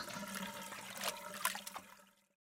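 Water sloshes and splashes for a couple of seconds, with a few sharper splashy bursts near the end before it quickly falls silent. Moderately loud, with no voices.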